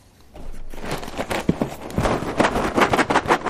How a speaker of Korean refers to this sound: 이게 시리얼 박스 흔드는 소리랍니다. 네. 아침에 시리얼 드시는 분들 꽤 있죠.